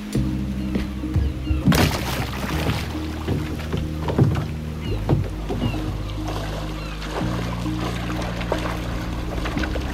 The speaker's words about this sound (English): Okay, hold on. I'll kayak over to you, okay? You, you don't have to shout.